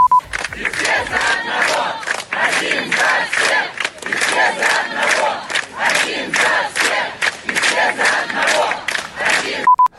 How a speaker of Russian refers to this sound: Первым на допрос следственный комитет прибыл юрист э, Знак. Его встретили овациями и кричалками.